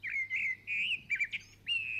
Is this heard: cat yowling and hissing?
no